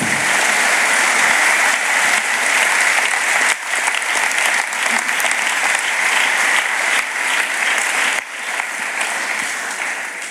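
A large crowd claps steadily and loudly for about ten seconds in applause for the Spirit of God, a dense wash of many hands with no voices rising above it.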